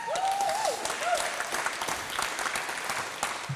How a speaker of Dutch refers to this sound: Halleluja, praise Lord. Laten we Jezus een applaus geven.